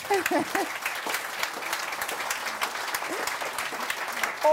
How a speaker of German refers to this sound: Aber das ist erstmal Ihr Applaus. Herzlichen Dank.